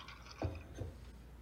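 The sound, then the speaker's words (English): A drink is mixed by pouring liquid back and forth between two glasses, two short, soft splashes about half a second apart, fairly quiet, with no talking. “So you could take a spoon, a bar spoon, a regular spoon, or if you want, take another glass pour it in a little bit, pour it back in the other way.”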